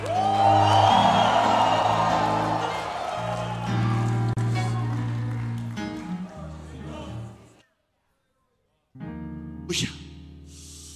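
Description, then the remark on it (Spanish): A church audience shouts and cheers together in praise of God in a loud, sustained roar with whoops, fading out into a brief silence before the noisy clamor rises again. “Levante la mano, levante bandera, levante bandera. Y alabe a Dios. Grite.”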